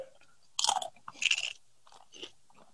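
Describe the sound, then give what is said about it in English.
Crunching of someone chewing Doritos party-sized Nacho Cheese tortilla chips, with two loud, brittle bursts followed by softer, quieter chews and no talking. “I don't know if the microphones can pick this up over me chewing this fucking deliciousness, but this shit slaps.”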